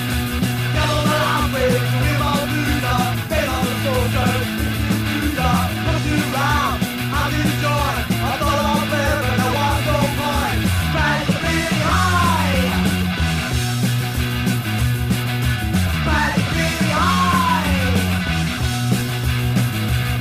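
A loud, raw punk rock song by one of the earliest punk bands in Manchester, from 1976, plays steadily, with driving distorted guitars and bass under shouted, strained vocals that stay at full intensity throughout.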